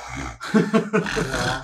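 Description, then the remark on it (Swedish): A voice imitates stressed, strained, snoring-like breathing: a few harsh, rasping inhales and exhales in quick succession, fairly loud, with no words spoken. “med varje harkling, snarkning, ljud är ju ett andetag.”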